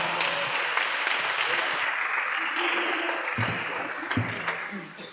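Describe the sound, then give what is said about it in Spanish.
A crowd applauds steadily for a few seconds, a dense wash of clapping that stays loud, then begins to thin and fade toward the end. “El aplauso para Diego.”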